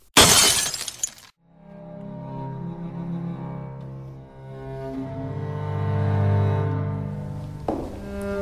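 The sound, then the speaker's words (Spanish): A sharp crash of breaking glass bursts out at the start, then a sustained, resonant tonal drone swells and fades, ending with a second brief crash. No one speaks. “Para mí, el rostro se le habría quebrado en mil pedazos como un vidrio estrellado.”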